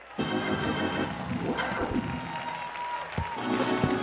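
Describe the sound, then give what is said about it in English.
An audience clapping hands in sustained, dense applause that fills the room, loud and continuous with a few voices calling out faintly underneath. “Somebody ought to clap those Holy Ghost hands.”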